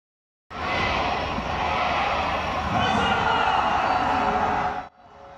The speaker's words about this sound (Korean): 불꽃이 터지고 사람들이 환호합니다. 지난 8월 말 30만 명이 다녀간 광명 바비큐 비어 페스티벌입니다.